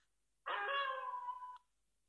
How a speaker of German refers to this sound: In der Ferne heult ein Wolf.